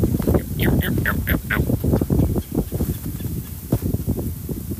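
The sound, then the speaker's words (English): A red-bellied woodpecker gives a quick series of four or five rolling, throaty calls, followed by a few fainter calls against steady outdoor background noise. “That's red belly woodpecker, by the way.”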